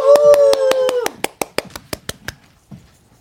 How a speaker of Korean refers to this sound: 박수!